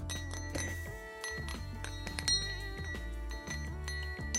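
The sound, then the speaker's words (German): A small hand bell rings repeatedly and briskly for several seconds, its bright metallic tones overlapping in a loud, continuous jangle with no talking. “Ich, ich schnapp mir dann hier meine Glocke der Schande und mach dann hier solche Sachen hier.”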